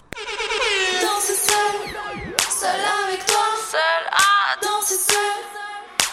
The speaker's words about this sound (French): C'est un single prometteur, percutant et rythmé de leur deuxième album et on l'écoute tout de suite.